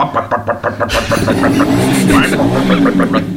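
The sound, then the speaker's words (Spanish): A man vocally imitates a big motorcycle being started, beginning with a rhythmic sputtering idle of short pulses, then swelling into a loud, continuous throaty revving roar. “El tío que llega, deja la moto ahí en medio de la calle, la deja arrancar, las motos gordas, y la da.”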